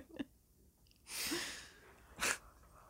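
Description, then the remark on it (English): A drawn-out breathy yawn from a tired person lasting about a second, followed by a short, sharp burst of breath, with no talking. “And I'm yawning because I'm old and I'm tired.”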